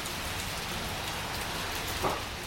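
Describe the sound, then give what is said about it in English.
Steady rain pours down in a dense, even hiss, fairly loud, with a brief heavier splash near the end and no voices. “Rain, rain.”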